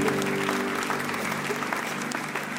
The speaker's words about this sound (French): Et tous ceux qui le croient disent Amen et applaudissent bien fort le roi.